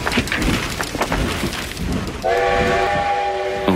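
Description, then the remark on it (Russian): A train rumbles along the rails with rhythmic clatter, then a loud, sustained horn blast sounds from about the midpoint to the end, prominent. “американские эшелоны маскировали под обычные поезда.”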